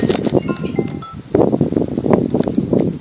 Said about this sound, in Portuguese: E ventos. Muito vento hoje.